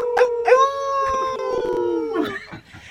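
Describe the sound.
Four people join in a long, sustained wolf-like howl on a count of three, imitating wolves together, holding a steady pitch for about two seconds before trailing off with a brief laugh-like break at the end.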